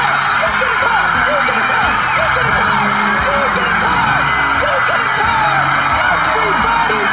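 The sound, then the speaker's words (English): A studio audience screams and cheers wildly as everyone is given a car, a dense, loud roar of overlapping shrieks and whoops that stays constant and unbroken throughout, with no clear individual voice standing out. “You get a car, and you get a car, and the whole crowd is just going nuts.”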